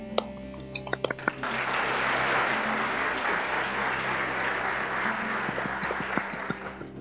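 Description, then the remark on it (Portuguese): A round of audience applause on a program for the show's specialist guest: dense, steady clapping swells after a second, holds at moderate loudness for several seconds, then thins out into a few scattered claps, with some light clinking sounds early on. “Então, uma salva de palmas para você”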